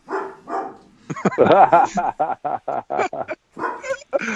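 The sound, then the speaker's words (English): A dog gives two short barks, followed by a run of excited yelping and choppy vocal sounds, with voices mixed in. “wow, my dog, my dog likes that,”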